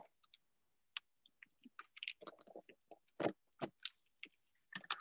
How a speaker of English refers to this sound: I don't care how bad it is for my shitty teeth already. I love chewing on ice. So good.